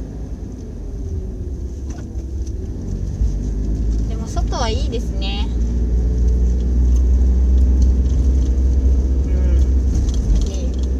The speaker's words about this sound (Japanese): 暑い暑いなちょっとまだ開けちゃおうかなうるさいかなそうね車の音がまだ開けるとうるさいかな